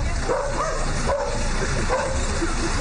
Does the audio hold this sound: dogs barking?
yes